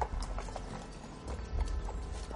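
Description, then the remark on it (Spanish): Horse hooves clip-clop in a steady, uneven patter of sharp knocks over a low rumbling background as Judah Ben-Hur rides up to the door of his house, where Roman soldiers wait; no voices heard. “Benur desmonta.”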